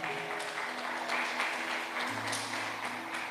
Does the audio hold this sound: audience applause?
yes